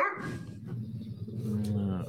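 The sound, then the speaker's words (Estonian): A mother dog growls low and steadily throughout as she calms her puppies with social aggression, with rough rumbling tones and a brief sharper bark-like burst near the start, moderately loud. “no kui, kui siin heli ei ole kuulda ja nii edasi, siis ema siis lõriseb ja haugub hetkel.”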